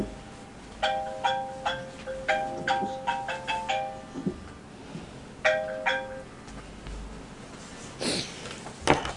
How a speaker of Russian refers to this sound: Ой, извините, пожалуйста. Это напоминание всем, кто забыл выключить звук. Если это просто вот специально такой будильник для всех, кто звук не выключил.